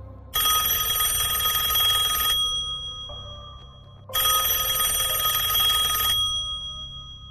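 A telephone rings twice at night, each ring a loud two-second burst of bright, buzzing tones separated by a short pause, with no voices.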